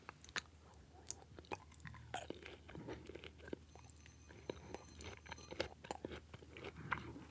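Biting and chewing of crunchy blackened food: a sharp bite, then irregular, crackly chews and moist clicks continuing for several seconds, quiet but intimate, with no talking.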